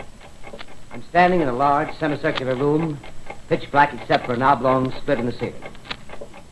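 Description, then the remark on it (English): Steady, regular mechanical ticking from the vibrating clockwork of a huge telescope at an observatory in Princeton, New Jersey, runs faintly beneath a man speaking calmly. “The ticking sound you hear is the vibration of the clockwork.”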